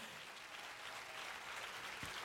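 An audience applauds steadily for a couple of seconds, a dense, even wash of many hands clapping at once with no pauses and no voices rising above it.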